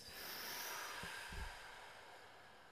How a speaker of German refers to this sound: Wir atmen ein. Atmen aus. Atmen ein. Atmen aus.